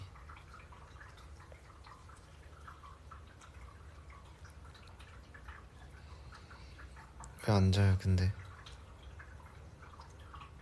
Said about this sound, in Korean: 물소리 우리 쿠키 물 먹는 그거 기계